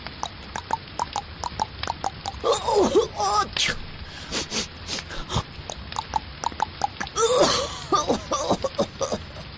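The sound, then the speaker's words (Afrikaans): Heavy stomping footsteps pound in a steady, uneven rhythm through a wash of rain, loud, with a few grunting vocal noises breaking in along the way, outside in the rain on a field path in front of a small house. “Mani Mier en Driekie Dassie sit nog en gesels toe hulle harde stampgeluide buite in die reën in die veldpaadjie voor Driekie se huisie hoor.”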